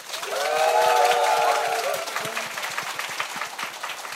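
An audience applauds with a dense, steady patter of many hands clapping, joined early on by a sustained, pitched whoop of cheering that fades after a couple of seconds while the clapping continues.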